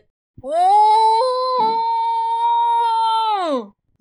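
elephants trumpeting

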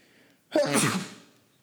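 sneeze

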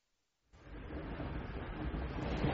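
train interior rumble

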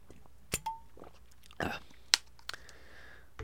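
drinking water

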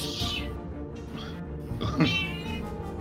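cat meowing loudly

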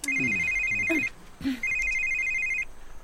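phone ringing

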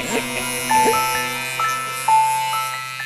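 phone ringtone

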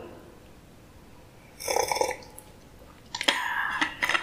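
sipping coffee

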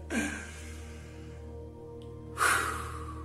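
deep breath taken in

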